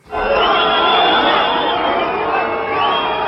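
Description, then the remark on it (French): A large crowd at the Printemps de Bourges music festival in France, April 1995, roars and cheers continuously during Jacques Chirac's visit, with high whistles streaking over the dense, loud wash of voices for a few seconds. “Ambiance de concert pour Jacques Chirac au printemps de Bourges. Mais le problème en musique, c'est que les sifflets peuvent s'interpréter dans un sens ou dans un autre.”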